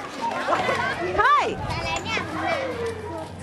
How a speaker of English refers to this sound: This, by the way, is the sound of those Nepalese children flying kites for the first time.